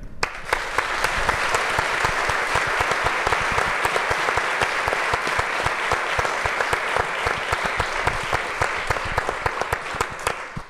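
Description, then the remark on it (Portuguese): Sustained, loud applause from a large audience in Lamego during a special broadcast, clapping so viewers at home can hear, many hands clapping densely and steadily for about ten seconds with no talking over it. “Uma salva de palmas para em casa vos ouvirem.”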